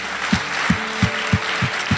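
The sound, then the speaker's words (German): An audience applauds Jesus after a prayer, in a dense, steady wash of clapping, with a regular low thump roughly three times a second running underneath. No one speaks. “Komm, wir geben Jesus mal einen großen Applaus.”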